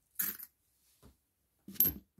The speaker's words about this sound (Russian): Так вот, вот, предположим, сейчас я вам возьму пятаки. Так, вот раз, два, давайте так, два, да, три, еще три, шесть.